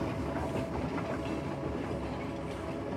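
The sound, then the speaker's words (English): A train rolls steadily along the rails at a safe, steady speed on a long journey, its constant low rumble and faint rhythmic clatter filling the space at an even volume with no voices. “They even out into a relaxing hum as the trains reached a safe and steady speed for a long journey.”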